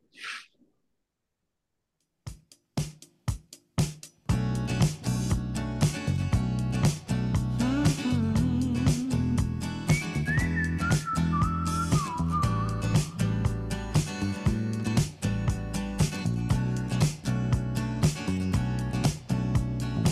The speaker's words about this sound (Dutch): Nou, zetten ze een nummertje op